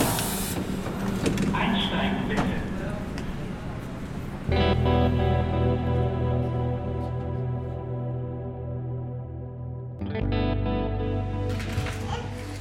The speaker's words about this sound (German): Also geht es gleich mit der U-Bahn zurück nach Charlottenburg. U7 nach Rathaus.